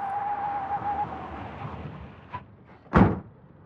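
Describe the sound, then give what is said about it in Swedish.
A car door slams shut with one loud thud, preceded by a softer knock, while a steady low hum fades out in the background. “Vid ljudet av bilen tittar de ut.”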